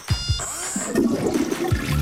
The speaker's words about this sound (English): Introducing the Kohler Touchless Toilet, the no touch flush for your home.